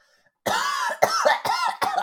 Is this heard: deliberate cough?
yes